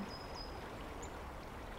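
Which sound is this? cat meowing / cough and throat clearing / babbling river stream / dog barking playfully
babbling river stream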